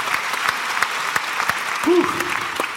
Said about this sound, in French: Voilà, applaudissez-la chaleureusement s'il vous plaît